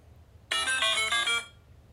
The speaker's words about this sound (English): And then she got a text. Your phone went off.